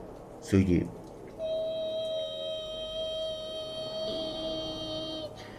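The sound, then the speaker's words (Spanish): A steady, high-pitched whistling tone holds for several seconds after a brief burst of voice, with a second fainter tone joining near the end; thin and sustained, like an electronic whine. “Y de la grabación, cuando eso estaba ocurriendo, se escucha, se escucha una especie como de pitido de sonido.”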